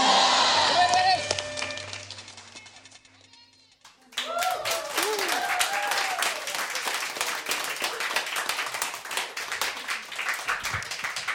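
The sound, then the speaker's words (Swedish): An audience at a contest bursts into dense applause with cheers and shouts after a brief quieter lull, the clapping staying loud and steady throughout, with excited voices calling out over it. “Det ska vara kramar, det ska vara tjo och klapp, applåder, busvisslingar.”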